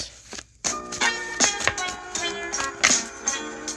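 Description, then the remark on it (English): Cards are shuffled for the Cancer star sign in quick, papery bursts of clicks and flutters, with irregular taps and a short pause near the start. No one speaks. “So we're going to go ahead and shuffle for these cancers.”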